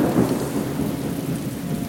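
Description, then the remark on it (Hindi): Steady, heavy rain hisses continuously while a low, rolling thunder rumble sits underneath, fairly loud, with no voices throughout. “यह मनहूस बारिश बस अभी रुक जाए मेरे घर पहुंचने के बाद शुरू हो”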